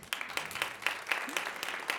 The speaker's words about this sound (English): I think we need some applause around that.